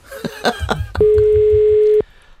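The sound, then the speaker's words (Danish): A few quick clicks and taps, then a loud, steady telephone dial tone sounds for about a second before cutting off abruptly, as someone places a phone call. “jeg skal lige ringe ham op.”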